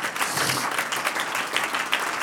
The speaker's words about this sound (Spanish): Diga en el nombre del Señor Jesús, un aplauso al que vive, aleluya.